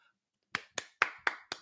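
A soft golf clap: five light, evenly spaced hand claps in a steady, unhurried rhythm, each a short crisp snap, with no voices.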